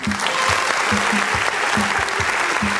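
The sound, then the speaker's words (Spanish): Steady audience applause for the Mister and Miss contestants fills the whole stretch, a dense wash of many hands clapping with a strong, rhythmic low thump recurring about twice per second, no voices speaking. “El aplauso una vez más, por favor, para todos ellos.”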